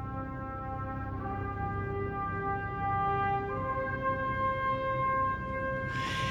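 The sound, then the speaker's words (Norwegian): The opening fanfare of Richard Strauss's 1896 orchestral classic Also sprach Zarathustra: sustained brass tones rise over a deep, rumbling low drone, swelling in steps and ending with a bright, noisy burst, like a cymbal crash. There is no talking. “inspirert av en stor klassiker av Richard Strauss fra 1896. La oss høre den.”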